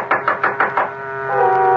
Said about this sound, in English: I found her room and knocked.